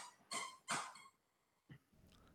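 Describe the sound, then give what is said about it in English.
A female dog plays with a squeaky toy: two loud, shrill squeaks in quick succession, then a pause and a shorter, softer squeak, with no talking. “I can hear your dog having fun in the background.”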